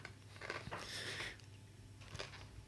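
Crunchy pork rind chips being chewed close to the mic, with a few crisp, irregular crunching bursts separated by brief pauses and no talking.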